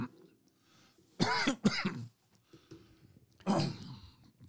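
Three rough, harsh bursts of coughing and throat clearing, fairly loud: two quick ones in succession, a pause with low murmuring, then a final hacking clear.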